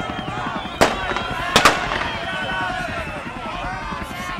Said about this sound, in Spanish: Las calles estaban llenas de barricadas, el aire pesado a bomba lacrimógena, los periodistas corriendo hacia la parroquia, los helicópteros, las, ráfagas de balas.